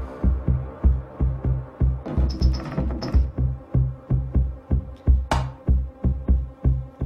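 An electronic dance track plays loud, driven by a steady pounding kick drum and deep bass, with bright synth stabs and a whooshing noise sweep near the end.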